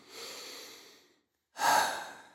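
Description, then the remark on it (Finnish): A slow, deep breath in followed by a pause and a louder, forceful breath out that releases the air, as part of a relaxation breathing exercise, airy with no talking. “Sisään aktiivisesti ulos vapauttaa se ilma.”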